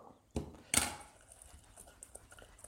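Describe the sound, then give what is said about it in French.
Cauliflower wings coated in tomato sauce being tossed in the last of the crushed cornflakes in a mixing bowl: two sharp crunchy rustles, followed by a soft, scattered crackling that fades out. “Et donc, je termine avec mes tout derniers cornflakes autour de mes wings.”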